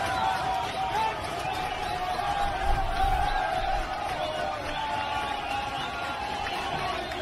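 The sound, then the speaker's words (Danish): A dense, steady roar of a large crowd cheering and chanting at a football match in a stadium in Zambia, many voices blending into a continuous wash with occasional swells and a brief low rumble near the middle. “Vi har også lidt lyd fra øh, helt klassisk øh, stadionlyd fra en øh, fodboldkamp i øh, Zambia, som lyder sådan her.”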